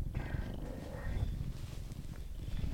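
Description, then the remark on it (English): A cat named Milo purrs steadily, a continuous low rumbling vibration with a soft rhythmic pulse running through the whole stretch, fairly loud with no voices over it. “The purring.”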